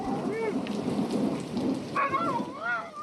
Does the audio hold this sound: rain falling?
yes